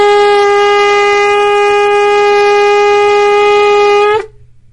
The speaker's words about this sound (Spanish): Y bueno, estuvimos ya con las trompetas, los shofarot. ¿Qué dijimos que significan los shofarot?